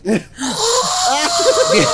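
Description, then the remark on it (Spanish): A voice imitates the wheezy, asthmatic snoring of a person who has asthma: raspy, strained breaths with squeaky whistling tones and rising and falling pitch, fairly loud, lasting about two seconds. “oye, oye, pero decía, decía, ¿qué tal que le hacía? parecía que se le acababa el chocomil.”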